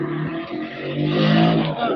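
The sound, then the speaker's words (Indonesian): A motorcycle engine drones past, its buzzing tone swelling to a peak midway and then easing off slightly as it goes by. “motor boy lewat”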